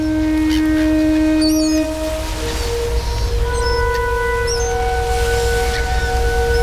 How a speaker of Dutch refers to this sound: Bij slecht zicht blies de misthoorn van het lichtschip een waarschuwingssignaal.